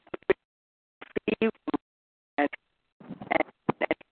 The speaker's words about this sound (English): You're breaking up a little bit. Move your phone.